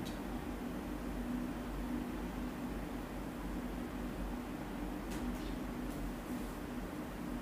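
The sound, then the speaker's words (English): A steady, low air conditioning hum continues without a break, with a faint tonal drone under broad hiss, and a few brief, faint high chirps near the end. “You might also notice the sound of the air conditioning the sound of the bird songs, the crickets.”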